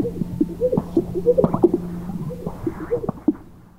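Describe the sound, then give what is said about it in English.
A male bird's air-sac mating display in mating season, puffing up giant air sacs on its chest and strutting to attract females: low, bubbly popping and gurgling sounds repeating irregularly over a steady low hum, moderately loud, with no talking. “Especially during the mating season when the males puff up these giant air sacs on their chests and they strut around making the craziest sounds to attract the ladies.”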